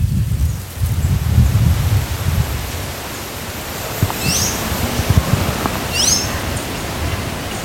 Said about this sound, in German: Ich höre Blätter im Wind rascheln, ich höre Vögel zwitschern, aber wie sieht das denn aus? Beschreib doch mal. Also das ist ein Wald, der richtig dicht und üppig ist.